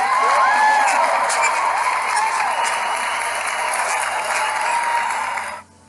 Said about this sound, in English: Clap for you.